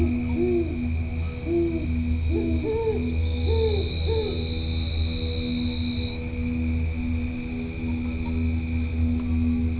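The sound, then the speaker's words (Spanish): Owls hoot repeatedly at night in El Ancón, La Paz municipality, Baja California Sur, Mexico, a series of short rising calls over a steady, continuous chorus of crickets and insects buzzing in the background. “Los cantos del espejo plasmat acompañan a las lechuzas y los grillos en sus cantos nocturnos.”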